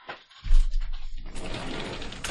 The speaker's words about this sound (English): You hear that buzzing? What is it? It's the the dryer. The clothes dryer is done.